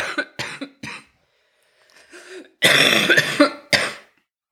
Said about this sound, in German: Ich sage jetzt noch schnell Tschüss, bevor ich wieder husten muss. Genau, ich glaube, wir ähm, haben gut durchgehalten. Ohne viel Ohne, Husten.